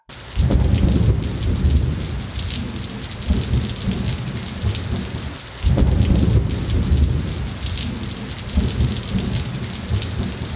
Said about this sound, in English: Outside, the storm grew angrier and darker.